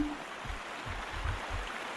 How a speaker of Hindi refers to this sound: पर यह क्या आधे रास्ते पहुंचकर लगा कि नाले में पानी बहुत आ गया है और नाला तो गहरा होता जा रहा है और इधर तेज बारिश भी शुरू हो गई थी